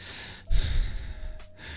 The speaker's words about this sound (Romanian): Domne, când nu respir eu, eu acum, uite, încep să respir mă voluntar, da?